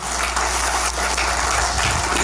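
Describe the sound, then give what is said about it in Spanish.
A church audience claps hands together as an offering of applause to the Lord, in a steady, dense wash of applause that holds at an even, fairly loud level throughout, with no distinct individual claps standing out. “Dele esa ofrenda de palmas al Señor”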